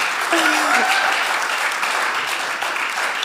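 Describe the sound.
A crowd claps steadily, a dense, even patter of many hands lasting a few seconds, with a brief voiced cheer rising over it near the start.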